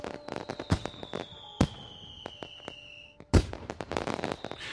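Fireworks exploding in a rapid, irregular series of sharp cracks and pops, with a few louder bangs and high whistling tones streaking across the bursts.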